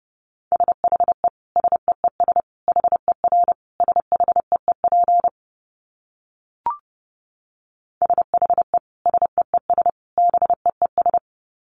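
Morse code sent at about 30 words per minute: a single steady mid-pitched beep keyed in quick dots and dashes, two bursts split by a silent pause with a brief click between.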